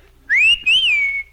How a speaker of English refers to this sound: Did, did you whistle for me? I whistled for the bus. You did not. That was a dog whistle.